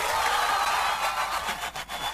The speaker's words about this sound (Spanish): Aplauso para ellos.